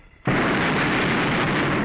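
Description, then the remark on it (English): A hot air balloon burner fires in one of its short, frequent burns with an abrupt, loud whoosh that settles into a steady roaring blast lasting well over a second, with no voices, as the balloon cruises low over a field. “The burns now, you'll notice, are short and often.”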